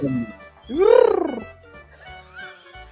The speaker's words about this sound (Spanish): No, la paloma que no venga, por Dios. La, ah, paloma. Te saltó la paloma.